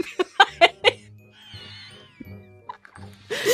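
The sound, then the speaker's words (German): Trousers squeak against a faux leather chair: a quick series of sharp squeaks, then a longer, wavering high-pitched squeal and some lower creaks, ending in a burst of rustling noise. “Das ist meine Hose an dem Kunstleder, auf dem ich sitze.”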